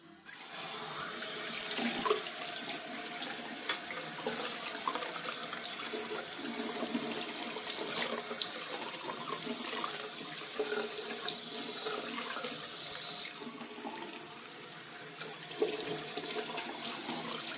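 A tap runs steadily into a sink, a continuous hiss of water with small splashes and clinks, lasting the whole time with no one speaking.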